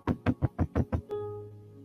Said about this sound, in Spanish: Cuando vienen, le tocan la puerta.